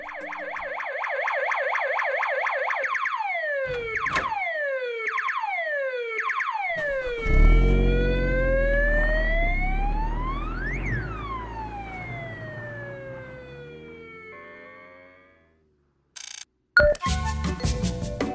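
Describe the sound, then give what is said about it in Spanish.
An ambulance siren blares in Buenos Aires, switching from a rapid yelp to slow rising and falling wails over a deep engine rumble, then cuts off, followed by short electronic bursts. The ambulance is picking up a man to take him to a hotel for isolation. “Lo pasó a buscar una ambulancia y lo llevaron al Hotel Regente en el centro de Buenos Aires para, empezar a cumplir con su aislamiento.”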